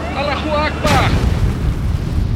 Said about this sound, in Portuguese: Uma fração de segundos depois, o voo 610 da Lion Air bate na água, matando todos a bordo.